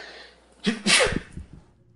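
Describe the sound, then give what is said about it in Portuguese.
A single sneeze: a quick sharp intake of breath followed by a loud, explosive burst of air, then a brief fading exhale. No one speaks. “Saúde é três.”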